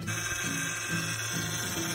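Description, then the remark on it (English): A steady mechanical whine from a car's power steering, droning continuously with a low, pulsing groan underneath that rises and falls every half second or so. “Hey, buddy, if your car making a sound like this,”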